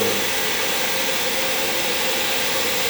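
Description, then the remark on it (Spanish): A coffee grinder grinds coffee beans with a steady, loud whir, a dense, continuous grinding roar that holds an even level for the full three seconds with no pauses and no voices. “y ese es el ruido de que están moliendo café.”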